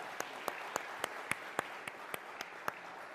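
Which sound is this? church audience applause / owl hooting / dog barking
church audience applause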